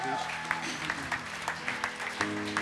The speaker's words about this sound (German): bleiben wir doch gerade stehen und geben Jesus einen Applaus, für wann er